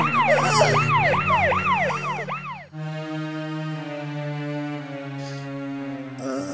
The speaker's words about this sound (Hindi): अरे लो एम्बुलेंस